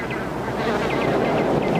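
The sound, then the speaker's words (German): A fly buzzes steadily, a continuous droning hum with small rising and falling swoops in pitch as it moves around, with no voices present. “Mann, der Fliegen fangen mit Stäbchen kann vollbringen alles.”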